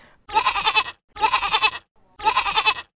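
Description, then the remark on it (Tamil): A male goat carried around a man's neck, its throat not properly squeezed, bleats loudly three times in a steady rhythm. Each cry is a wavering, nasal bleat lasting under a second, with short silent gaps between them. “கிடாயின் குரல் வலையை கடித்து துப்பினார் கிடாய் சத்தம் நின்றது”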